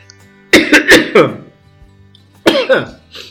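A loud fit of coughing: three or four sharp coughs in quick succession, a short pause, then another brief pair of harsh coughs.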